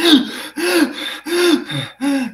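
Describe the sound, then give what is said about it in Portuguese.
A voice imitates the rapid, shocked gasping of a person entering ice-cold water: four quick, loud, voiced breaths in a steady panting rhythm, with no words spoken. “Fica completamente ofegante.”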